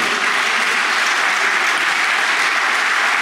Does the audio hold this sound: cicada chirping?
no